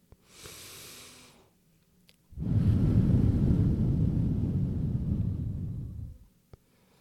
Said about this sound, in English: You will inhale through your nose and then exhale through the mouth with pursed lips as if you're blowing through a straw. Sounds like this.